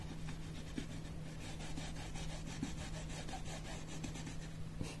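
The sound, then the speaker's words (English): A brush scrubs back and forth in quick, steady strokes, a rhythmic scratching that continues throughout over a low constant hum, with no voices. “Can you hear the brush?”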